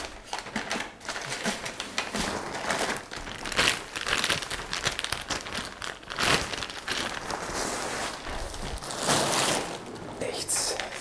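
Continuous crinkling and crumpling of an aluminium foil garden cover being scrunched back into a ball, with dense crackly bursts throughout and no clear pauses.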